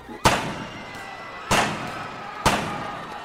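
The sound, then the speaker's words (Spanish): Three loud gunshots, fired at point-blank range at a man, ring out spaced roughly a second apart, each a sharp crack followed by a brief echoing decay, with no voices. “Chalino le dispara tres balazos a quemarropa al Chapo Pérez.”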